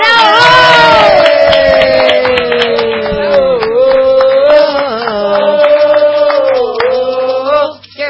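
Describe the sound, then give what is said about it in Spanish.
An audience cheers loudly with long, sustained whooping voices over scattered clapping, welcoming a guest, holding steady for about eight seconds before cutting off. “ahora un aplauso para nuestro regalo de Reyes,”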